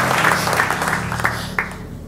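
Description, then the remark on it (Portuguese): An audience applauds steadily in praise to Jesus for a couple of seconds, a dense, even wash of many hands clapping at once, with a few sharper claps standing out near the end. “Dê um aplauso e o mistura com glória a Jesus.”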